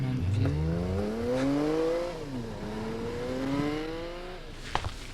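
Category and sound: vehicle, car driving away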